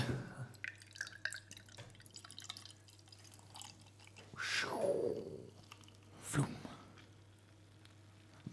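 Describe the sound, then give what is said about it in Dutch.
Fortune Favors the Brave, an 8% Double New England IPA, being poured into a glass, a gurgling stream whose pitch shifts as the glass fills, with small drips and a brief splashy burst near the end over a quiet hum. “Dus uh, schenk hem maar in,”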